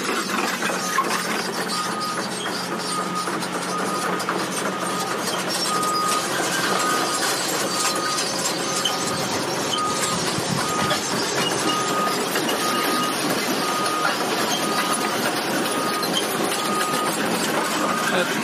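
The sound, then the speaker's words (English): Heavy machinery grinds and clanks steadily, a dense mechanical rattle with a low engine rumble underneath, as a tracked excavator on steel treads runs and raises its bucket. “Here comes the, oh, you, you gotta love steel treads. Uh, they're just such a neat thing, like on tanks.”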